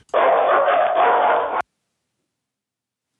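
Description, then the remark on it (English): A loud dog bark stretches into one sustained burst of about a second and a half, then cuts off abruptly, leaving silence. “Oh, wait, no, I do have a dog.”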